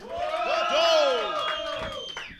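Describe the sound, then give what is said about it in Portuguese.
A crowd cheers and whoops loudly, with many voices rising and falling together over a steady wash of clapping, holding strong for a couple of seconds before easing slightly, making noise for those who liked Jojo as the host calls for noise in a vote. “Muito barulho pra quem curtiu o Jojo.”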